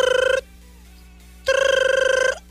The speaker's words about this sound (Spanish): Oye, está sonando el teléfono. Está sonando el teléfono.